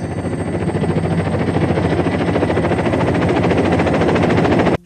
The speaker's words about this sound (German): sagt sie, während der Helikopter über die Felsen fliegt.